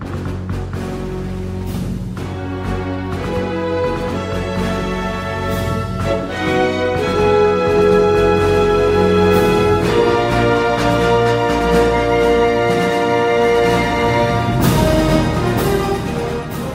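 The main theme of a film score, played by a full orchestra at a steady, loud level, with sustained strings and brass chords swelling over a deep low-end pulse, building toward a broader, brighter passage near the end.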